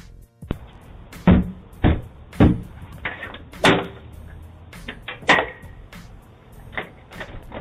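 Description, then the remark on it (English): Loud, heavy banging on a house's front door by a little boy on the porch, about half a dozen forceful blows in an irregular rhythm, sharp, with some fainter knocks and rattling between them and no one speaking. “Little boy, you better get your ass from off my porch beating on my door like this.”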